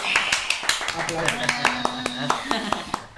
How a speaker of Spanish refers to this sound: Se vale aplaudirle a la novia.